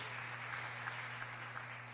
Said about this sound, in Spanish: Démosle palmas al Señor.